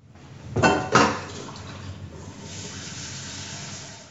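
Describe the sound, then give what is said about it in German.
Pots and pans clatter in a home kitchen where an Alexa smart speaker stands: two sharp metallic clanks early on, followed by a steady hiss and faint rattling as the clatter settles. No one speaks. “So, das ist jetzt offensichtliches Topfgeklapper bei mir aus der Küche, weil die Alexa haben wir bei uns in die Küche gestellt, weil ich fand, das ist so ein Ort, der vielleicht nicht ganz so privacy verletzend ist wie das Schlafzimmer oder das Bad”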